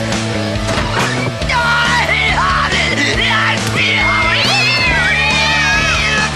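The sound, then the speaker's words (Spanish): Several cats meow and yowl in drawn-out, wavering cries that overlap, loud, over a steady low droning background for the whole stretch. “Las personas aseguran que está loca porque tiene decenas de gatos.”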